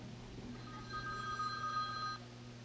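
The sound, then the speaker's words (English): A cell phone rings with a steady electronic tone lasting about a second and a half over a low background hum, then cuts off abruptly. “Man, did I not turn my phone off?”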